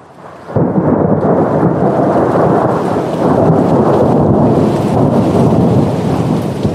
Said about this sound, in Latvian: Tā ir viena no oktobra beigu vētrām, kas dienā tikai iešūpojas, lai naktī nevaldāmi iztrakotos un nespētu rimties līdz rītam. Viļņi kā nikni nezvēri metas virsū pludmalē, kāp līdz kāpām un graužas zem priežu saknēm.